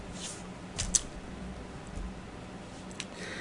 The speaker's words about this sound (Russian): речь шла совсем тогда еще, тогда еще не было электробриц. Имелась в виду машинка, которую э, парикмахер руками, ручными движениями приводил в действие.